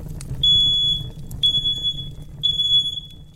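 A smoke alarm sounds three loud, piercing high-pitched beeps, evenly spaced about a second apart, each held briefly over a faint low rumble in the background.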